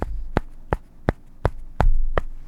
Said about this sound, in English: Uh, currently, I'm wearing a cast. In fact, I shall slap it against the microphone so you can hear it.